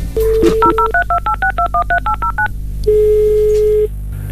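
A telephone number being dialed to place a call: a quick run of about a dozen touch-tone beeps in steady rhythm, bracketed by steady tones before and after, clear with no talking.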